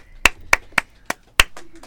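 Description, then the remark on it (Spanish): A handful of sharp claps in a steady, even rhythm, about seven in quick succession, like a small applause from one or two people rather than a crowd, welcoming a music artist as a guest on a program for an interview. “Un aplauso, por favor.”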